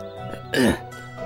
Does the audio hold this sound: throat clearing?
yes